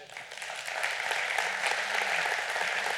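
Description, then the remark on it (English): A crowd applauds steadily, a dense wash of many hands clapping at an even, sustained level throughout, with no voices standing out. “That applause goes to God because God gets the glory because it's God that's calling and doing what he's doing.”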